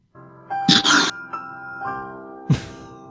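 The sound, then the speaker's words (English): A short 'The More You Know' PSA-style jingle plays as a sound drop: bright, sustained chime-like tones ringing out with a couple of sparkly whooshing swells, clear and fairly loud, with no one talking. “I should have an explosion sound effect, but I did the more you know.”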